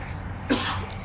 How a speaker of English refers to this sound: Bless you. Um, I coughed, but thank you.